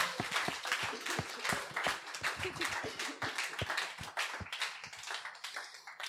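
A steady round of applause, many hands clapping in a dense, fast patter of sharp slaps that keeps up at an even, fairly loud level throughout, with no voices over it.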